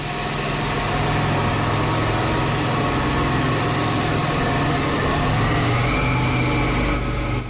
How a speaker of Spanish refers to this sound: Estamos escuchando eh, esa contaminación acústica que vemos, por ejemplo, en el aeropuerto de Foronda con el sonido de los aviones, en una rotonda